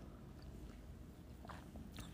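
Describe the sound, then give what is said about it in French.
A quiet sip of tea, a couple of soft slurping, wet mouth sounds over a low background hum, with no talking. “Des fois, je me disais, attendez, je vais prendre une petite tasse, un, un petit, euh, une petite gorgée de, de, thé”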